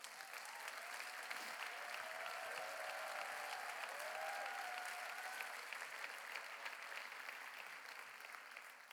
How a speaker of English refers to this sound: Give her a big hand clap.